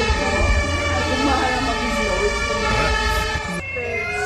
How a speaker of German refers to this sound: Die meine ich gar nicht. Ich wollte die andere Sirene eigentlich machen, die auf den Dächern losgeht